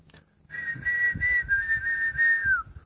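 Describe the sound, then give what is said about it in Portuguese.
A person whistles a sustained, wavering high tone for about two seconds, imitating a bird's song, with slight pitch flutters before it dips at the end. Soft low thumps sit underneath. “O outro passarinho cantava.”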